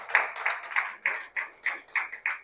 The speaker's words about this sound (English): Come on. Come on. i do it. i clap for that.